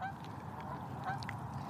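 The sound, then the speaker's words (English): Geese honking overhead as a flock flies past low to the ground in a V formation, several overlapping nasal calls over a steady outdoor background, with no one talking. “Nice formation of geese there.”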